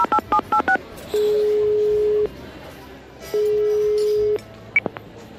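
A quick run of five or six telephone keypad dialing beeps, followed by two long, steady ringback tones separated by a pause, clear over faint background noise, as someone at the Snac Barça phones a friend.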